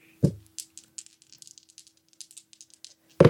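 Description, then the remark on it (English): Dice are rolled during a game, rattling and clattering in a quick burst of small, bright clicks that scatter and settle, opening with a dull thump and ending with another low knock. “S- well, I don't know what's wrong with these dice.”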